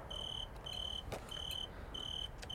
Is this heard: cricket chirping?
yes